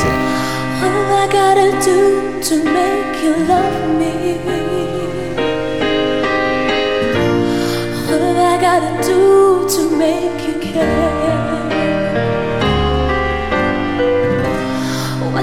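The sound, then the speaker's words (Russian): A woman sings her cover version of a slow, emotional pop ballad over full, sustained instrumental backing, with the music steady and fairly loud throughout and no talking. “Вот как звучала ее версия.”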